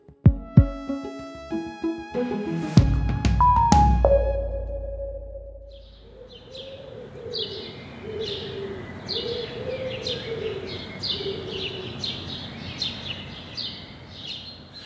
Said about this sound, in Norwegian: Klokka er kvart over fire om morgenen, og på Majorstua er det foreløpig bare fuglene som er våken.